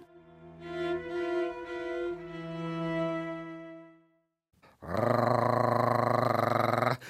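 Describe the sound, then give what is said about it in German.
A voice imitates a dog growling: first a long, wavering, moderately loud growl, then after a brief pause a harsher, louder, buzzing snarl held for about two seconds, with no other talk. “Sie knurrte wie ein Hund.”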